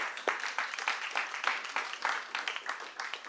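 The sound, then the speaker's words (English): A crowd applauds steadily in the evening for an English teacher, many hands clapping in a dense, crackling wash with faint uneven peaks, holding at a moderate level for a few seconds with no voices on top. “You, you, let's clap for that, man.”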